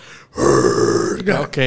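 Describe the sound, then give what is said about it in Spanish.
A single sustained, raspy guttural growl from a voice, a metal vocal technique sung with the throat and the diaphragm. It is loud and lasts over a second with a rough, distorted throat texture, ending with a brief higher vocal sound. “El gutural eh, es una técnica de voz que hablas con la garganta, pero en el metal tienes esta, este sonido que lo metes con el estómago también, con, el, diafragma, Con el diafragma.”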